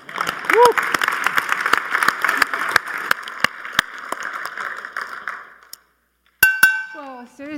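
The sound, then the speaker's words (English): A crowd bursts into dense, steady applause for a performer being introduced on stage, with sharp individual claps and a brief cheer early on; the clapping fades out after several seconds, then a voice begins speaking. “Give it up for”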